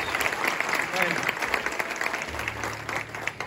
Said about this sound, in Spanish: Y quiero que le des un fuerte aplauso a Dios por lo que está haciendo en esta casa.